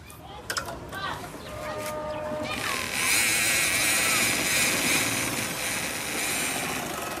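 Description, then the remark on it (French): A few clicks and brief handling noises, then a woman's sewing machine, her work tool, starts and runs steadily, its motor whirring with a dense, rapid mechanical chatter, fairly loud. “Alors ça, Rosine Bacam, c'est le bruit de la machine à coudre”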